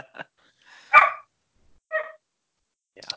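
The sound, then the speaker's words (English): A dog barks about four times, short sharp yaps spaced roughly a second apart, with the second bark the loudest. No one speaks, and it's quiet between barks. “Rar rar. Hey, stop.”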